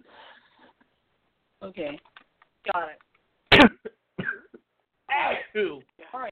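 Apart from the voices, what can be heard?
sneeze or cough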